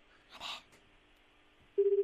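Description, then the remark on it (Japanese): A brief muffled rustle, then a steady low telephone tone begins near the end, pulsing slightly as an outgoing call to a radio listener connects and rings out during a live radio broadcast. No one speaks. “はい、なんかメールをもらって、ちょっと一回電話くれって言うからさ。”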